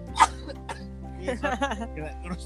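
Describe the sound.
A single short, sharp cough bursts out near the start, followed by a few seconds of people talking with a faint steady hum underneath.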